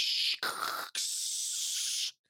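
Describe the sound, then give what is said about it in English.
A voice imitates a dial-up modem connecting to the internet over a phone call: a short hissing screech, a rougher crackly burst, then a longer steady static hiss, all loud before cutting off abruptly. “Now, I don't necessarily think anybody's surprised at the fact that in order to connect to the internet back in the day, we had to use dial up modems, which basically made a phone call and then made a bunch of noises.”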